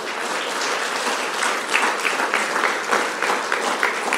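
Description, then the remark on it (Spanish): A church audience claps steadily for the Lord of Glory during a service, a dense wash of many hands applauding at a fairly loud, even level with small swells, and no voices standing out. “Dale un fuerte aplauso al Señor de la Gloria.”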